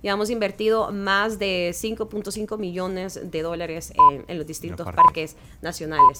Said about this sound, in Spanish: Así es y ese es el sonido de la, hora en punto, son las nueve.